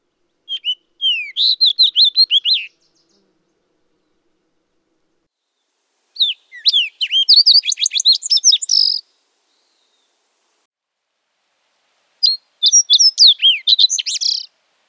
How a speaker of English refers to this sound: The fox sparrow song is a series of rich, whistled, and burry notes. A lively song that opens with one or more cleared whistle notes, followed by several short trills or churs.